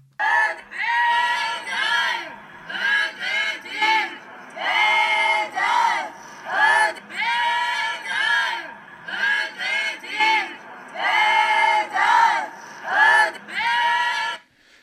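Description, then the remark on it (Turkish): A crowd of protesters in front of a courthouse chants slogans such as "bedel ödedik, bedel ödeteceğiz" in loud, rhythmic unison, voices rising and falling in repeated bursts with short pauses between phrases, during a sit-in supporting those who took a prosecutor hostage inside. “E, sloganlarını dinleyelim.”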